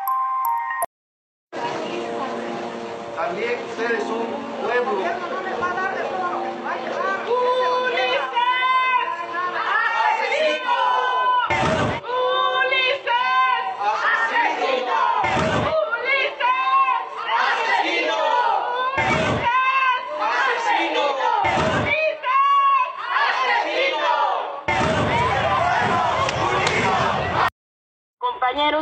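A street battle crowd clamors and shouts continuously during the battle of Todos Santos in Oaxaca, as soldiers dressed as federal police try to take Ciudad Universitaria. A handful of loud, sharp slams punch through at irregular intervals, followed by a longer noisy burst near the end.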